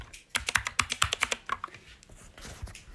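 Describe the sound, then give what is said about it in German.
Rapid keystrokes clatter on a computer keyboard as someone types their surname, about a dozen crisp clicks in an uneven burst, then slower, softer taps trailing off. Fairly quiet, with no voices. “Ich schreibe jetzt meinen Nachnamen auf der Tastatur, ohne dass ihr das hört.”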